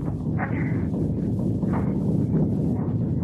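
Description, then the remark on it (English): A deep, continuous roaring rumble of a snow avalanche covering the whole far side of a valley, heavy and steady in loudness for several seconds, with a few brief hissing swells rising over the low roar. “this snow's like a regular avalanche. The whole far side of the valley's covered. But it's still coming.”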